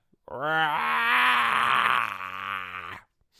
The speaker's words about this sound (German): Ich musste gerade gähnen, falls es euch interessiert. Boah, bin ich müde.